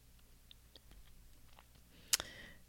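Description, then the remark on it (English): Soft, irregular clicks and taps of typing on a keyboard, someone typing 'Ron Burgundy' instead of 'Anchorman', sparse and quiet at first, then one sharper, louder keystroke near the end. No one speaks. “I keep typing Ron Burgundy instead of Anchorman.”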